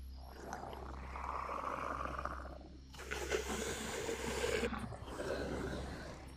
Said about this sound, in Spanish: Solo puedo comparar ese sonido con el del claxon de un camión muy grande.